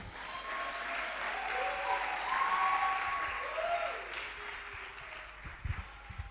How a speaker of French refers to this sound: Si tu as la victoire, est-ce que tu peux acclamer plus fort tu es né de Dieu, acclame plus fort.